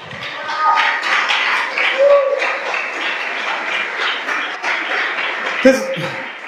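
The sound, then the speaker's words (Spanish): An audience at an evening church service breaks into sustained applause for God, a dense wash of many hands clapping with scattered voices and cheers mixed in, steady and fairly loud for several seconds. “Él se merece un aplauso en esta hermosa noche.”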